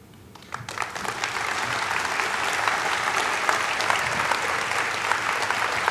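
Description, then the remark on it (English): Audience applause for Jennifer Keesmaat after her talk swells up within the first second into steady, dense clapping that stays loud and even for several seconds, a broad crackle of many hands with no voices over it. “A big round of applause for Jennifer Keesmaat.”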